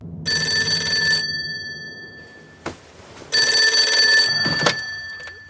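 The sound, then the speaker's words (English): A telephone rings twice, waking a man, in bursts of bright, steady bell tones about a second long, separated by a pause with a brief knock, loud with no talking. “Yeah, and he is being woken up by a phone.”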